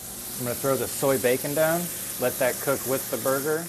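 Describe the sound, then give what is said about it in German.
Soy bacon and a burger sizzle together in a pan while the bun is toasted at the same time, a steady bright hiss running throughout while a voice talks over it. “Jetzt braten wir das Soja-Bacon-Stück an, gemeinsam mit dem Burger.”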